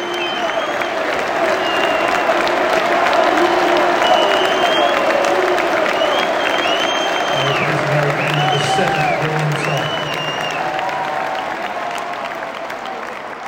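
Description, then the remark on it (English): A large stadium crowd applauds Harry Kane, number 10, as he is substituted in a match against Paços de Ferreira, a loud, steady wash of clapping that lasts throughout, with scattered voices and cheers rising within it and a low hum underneath. “outstanding emotional round for Harry Kane.”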